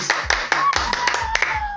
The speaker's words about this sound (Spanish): por favor, aplausos, señores.